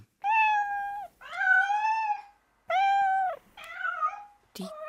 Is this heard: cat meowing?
yes